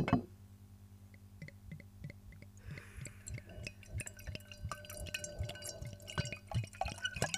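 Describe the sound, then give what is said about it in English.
Barbaresco red wine glugs steadily out of a bottle into a glass, a quick run of rhythmic gurgles with splashy liquid sounds, moderately quiet and with no talking. “That's a satisfying glug of barbaresco.”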